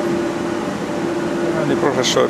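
A steady mechanical hum with a constant tonal drone from a server's cooling fan running in a cinema projection room, with a brief burst of higher noise near the end.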